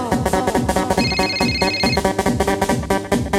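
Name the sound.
telephone ringing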